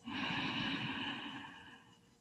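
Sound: deep inhalation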